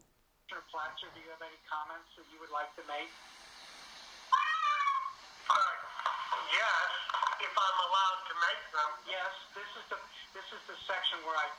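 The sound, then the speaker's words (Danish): A cat meows repeatedly through tinny video playback as a man introduces his cat to the camera, its drawn-out, rising cries breaking in after his voice and continuing amid his chatter for several seconds. “Okay, det der sker, der er en mand, der bare gerne lige vil introducere sin kat ja, til ja. kameraet, og så kaster han den bare ja, ud, af kamera, ud, af, ud af frame.”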